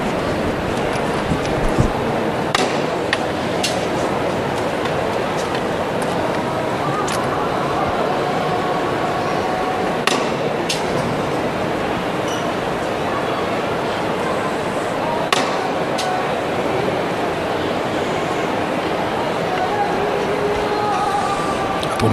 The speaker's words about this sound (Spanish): Va a sonar el martillo.